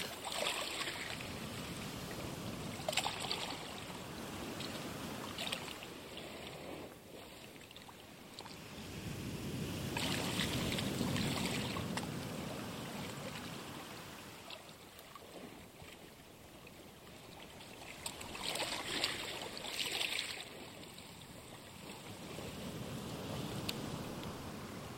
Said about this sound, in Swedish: Du fortsätter att blunda och lyssnar till havets ljud.